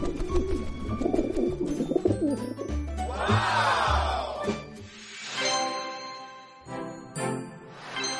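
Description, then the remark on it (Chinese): Soft, low pigeon cooing repeats in short throaty phrases, mixed with bright tinkling chimes and a rising whooshing sweep, with no talking. “哦，原来如此，那我原谅小鸽子吧。”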